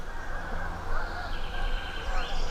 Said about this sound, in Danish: Nej, svaner. Det er nok svaner. Kommer nok derude et eller andet sted. Der er de. Det er sjældent at se så mange på én gang.